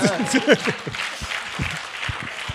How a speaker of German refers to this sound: Also das ICF ist jetzt offiziell ein Teil vom Sommerfest. Cool, ja? Wo ist der Applaus? Ja.